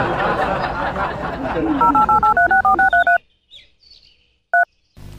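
A quick run of about ten mobile phone keypad dialing beeps as a call to a mother is dialed, each a clean two-tone chirp, pressed in steady rhythm over a noisy background, then near silence with faint chirps and one last beep.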